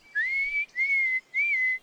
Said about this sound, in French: Puis il se met à siffler.